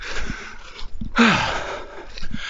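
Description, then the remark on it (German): Heavy, ragged breathing from someone out of breath after running briefly away from a dog, outdoors in a forest in the wind; several loud huffing breaths with a sharp wheezy gasp midway. No one speaks. “Warum bin ich so krass aus der Puste, nur weil ich so kurz vom Hund weggelaufen bin?”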